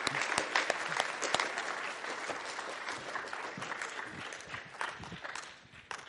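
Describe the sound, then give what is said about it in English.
A church audience applauds the models at a morning gathering, steadily for about six seconds. Dense, overlapping claps at moderate volume taper slightly at the end, with no one speaking. “All right, let's hear it for our models this morning.”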